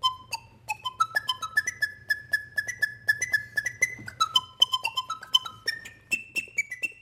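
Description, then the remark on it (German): A flute-like instrument made from a vacuum cleaner, its motor reversed to blow instead of suck and its metal tube turned into a flute resembling an organ pipe, plays a breathy, whistling melody of short stepped notes rising and falling, over a steady low motor drone. “Und die metallene Röhre hat er zu einer Flöte umfunktioniert.”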